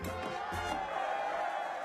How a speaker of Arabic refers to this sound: الجمهور يصفق طويلا معجبا ومذهولا بموهبة طفل بالكاد لم يتجاوز عمره الخمس سنوات